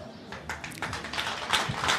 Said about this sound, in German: Applaus.